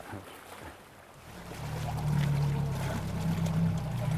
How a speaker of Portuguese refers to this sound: É num pequeno barco que Ana Paula Marques e Carlos Sorrinho atravessam o rio Guadiana